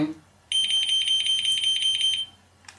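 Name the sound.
wireless receiver alert signal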